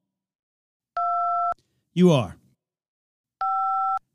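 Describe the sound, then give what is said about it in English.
Two steady telephone keypad tones, each lasting about half a second, sound clearly and a few seconds apart as a caller dials while still connected on an open phone line, with a short spoken phrase from a voice between them. “Are you trying to dial right? Because you're still on the phone.”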